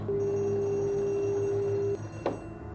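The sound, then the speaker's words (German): A telephone in an inn rings once, the third call of the evening, with a single steady electronic tone lasting about two seconds, then cuts off, followed by a brief click over a low background hum. “Telefon klingeln. Das dritte an diesem Abend.”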